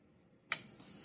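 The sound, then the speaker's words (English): A single high electronic beep from an Instant Pot switching on to pressure cook eggs for seven minutes sounds midway through, starting with a sharp click and then holding a steady ringing tone to the end. It is fairly quiet, with no talking. “Set the time up to seven minutes and then you're going to wait for the on switch to know that your eggs are going to be getting started and the Instant Pot's listening to you.”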